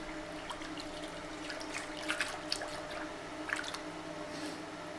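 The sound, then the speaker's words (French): Intermittent drips and small splashes of water in the darkroom of a film photography lab while a print is being developed, set against a steady low hum, with a few slightly louder wet plinks around the middle. “Une micro immersion dans une chambre noire du labo photo argentique”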